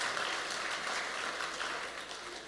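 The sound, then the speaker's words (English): A church audience claps steadily in a dense, even wash of applause that holds its level throughout, with no voices standing out above it. “And um, I tell you what, yeah, you can give him, you can give him a big clap.”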